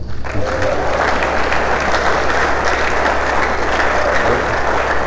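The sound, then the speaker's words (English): An audience applauds steadily for about five seconds for the longest-serving guitarist in a band, a dense, even wash of many hands clapping at a constant loud level with no voices standing out. “Clap for him.”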